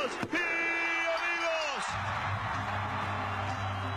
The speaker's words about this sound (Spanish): El público está totalmente de pie aplaudiendo a la campeona, pero por encima de todo, no solamente aplauden que Lita se haya podido vengar todo lo que ha querido